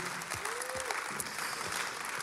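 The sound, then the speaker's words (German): An audience claps steadily as applause given to God, a dense wash of many hands with no pauses, while a voice or two whoops faintly through the applause. “Und lass uns für das Gott einen Applaus geben.”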